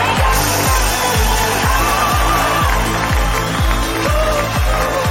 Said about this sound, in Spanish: Un aplauso a nuestra nueva diamante.